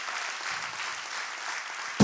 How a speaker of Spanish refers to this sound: Dele fuerte su aplauso al Señor.